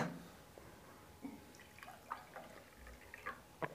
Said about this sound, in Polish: Doleję zupełnie. Wody.